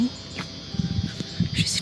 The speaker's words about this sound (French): si vous entendez aussi les, les cigales. Euh, parfois, c'est insupportable euh, le, son des cigales.